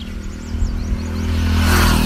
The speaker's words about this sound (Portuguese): Eu vim dar uma caminhada aqui na estrada, por vocês estão ouvindo os barulhos dos carros.